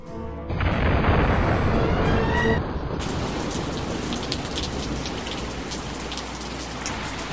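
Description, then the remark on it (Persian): Heavy rain pours down steadily, a dense hiss of drops drumming on surfaces that fills the whole scene, with a faint low rumble underneath and no voices. “بارون میاد جر جر”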